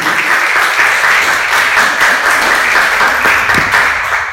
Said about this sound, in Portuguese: Amém? Você pode aplaudir Jesus, por favor? Glória a Deus.